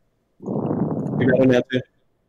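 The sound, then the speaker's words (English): Muffled breathing through the nose blowing straight into a microphone, a rough low rush of air lasting about a second, ending with a couple of short voiced breathy bursts. “I can hear you breathing. I can hear your yeah, nostril you're... down the microphone.”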